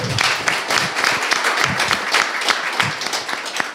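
A small group claps steadily and continuously, a dense patter of overlapping handclaps filling the space at moderate loudness, with a faint murmur of voices beneath.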